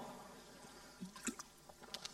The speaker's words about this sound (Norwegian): Så jeg, jeg, tar ikke sjansen på det, så jeg drikker litt vann.